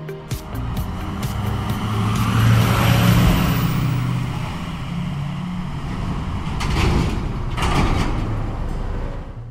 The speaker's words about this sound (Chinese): 起重机挥手道别，大家今天都很棒。他们缓缓开走，引擎轰隆作响。